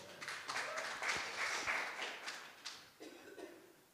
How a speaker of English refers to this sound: You can take a seat. Round of applause.